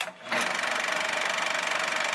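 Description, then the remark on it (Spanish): A film projector starts up after a brief pause and runs with a steady, fast mechanical clatter, loud, its rapid ticking rhythm continuing evenly to the end. “Y el cinematógrafo.”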